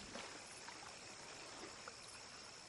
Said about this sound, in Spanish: Mira hacia el río. Las aguas avanzan calmadas.